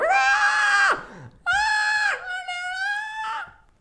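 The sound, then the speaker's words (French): Someone imitates a young woman screaming: three long, shrill, sustained cries, loud, separated by brief gasping pauses, the last one wavering before it fades. “Ah, mais c'est des hurlements, ça, tu les entends.”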